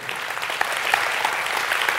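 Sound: audience applauding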